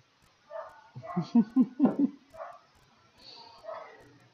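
A pack of dogs barks while passing by: a quick run of four or five sharp barks, fairly loud and close together, followed by quieter yips and rustling as the dogs move past.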